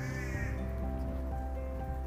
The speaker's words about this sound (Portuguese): na verdade, vocês estão ouvindo aí? É um corvo.